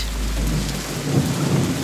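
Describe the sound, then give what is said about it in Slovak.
Steady, dense November rain in Washington State hisses evenly throughout, with a low rumbling undertone beneath the downpour and no voices. “Počasie je pľuhavé a občas zavanie od Tichého oceánu vlhký vzduch ohriaty golfským prúdom a spôsobí neutíchajúce daždy.”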